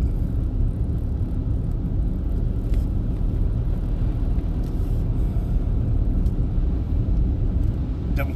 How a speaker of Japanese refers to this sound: ちょっと慎重に慎重にハンドルを切っていきますちょっとスピードを落としてほら30キロ今現在30キロで走行していますややのんびり噛んだややのんびり